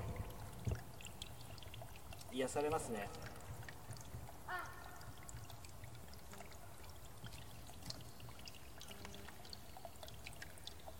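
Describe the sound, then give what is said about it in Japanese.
A steady rush of flowing stream water, heard on a walk with an echo effect applied, fills the whole recording, constant, with a man briefly speaking over it a couple of times. “どうですか水の音。”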